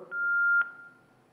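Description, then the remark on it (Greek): A steady electronic telephone tone holds for about half a second, bracketed by two short clicks, then fades out as a caller's phone line drops during a call-in. No one speaks. “Κάτι καλό πήγε να πει. Θα δούμε, ρε, να βλέπαμε, έπεσε.”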